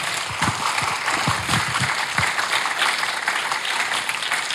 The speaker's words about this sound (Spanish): Demos un aplauso por esos dones que Dios da.